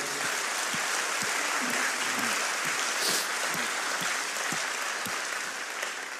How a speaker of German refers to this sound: Können wir diesem herrlichen König mal einen mächtigen Applaus geben?